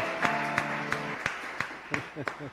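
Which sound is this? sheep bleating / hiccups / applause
applause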